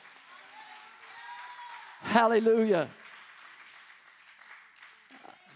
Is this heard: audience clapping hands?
yes